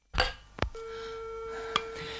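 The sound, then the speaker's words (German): In the 1943 American crime radio play Sorry, Wrong Number, about a woman alone at home struggling with the telephone, a couple of sharp handset clicks are followed by a telephone busy signal humming on as a single steady, clear tone, with no voices. “Ach, was soll denn das? Immer besetzt.”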